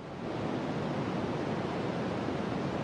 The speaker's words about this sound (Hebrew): רעש לבן בגדול הוא רעש שבו כל התדרים אה, מנוגנים בו זמנית. זאת אומרת, מהתדר הכי נמוך ועד התדר הכי גבוה, נוצר לנו בעצם רעש לבן. זה נשמע כמו כביש, זה נשמע כמו, אה, כמו ים.